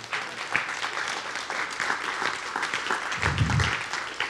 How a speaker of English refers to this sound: Come on, if you receive this, would you just give the Lord a good round of applause today?